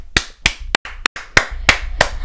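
Seven or so sharp, crisp hand claps in a steady, slightly uneven rhythm, fairly loud and bright, with no talking over them, like one person giving a short burst of applause for actor Daniel Radcliffe's performance as Harry.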